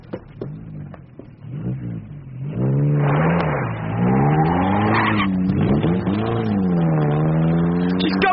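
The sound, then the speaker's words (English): A car engine starts low, then revs loudly and roars away at speed, its pitch climbing and dipping through several gear-like surges, with no voices. “She must have got to her car, sir, but I put two men to watch it.”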